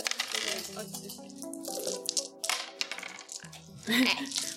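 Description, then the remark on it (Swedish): Dice clatter and tumble across a hard tabletop in a few quick bursts of rattling clicks, with people talking and murmuring over the sound. “Jag rullar då min en tärning. Rulla två tärningar.”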